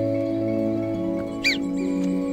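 Marmots give shrill alarm whistles: one sharp, high, downward-sliding call stands out, followed by a fainter second one, over a steady low droning hum.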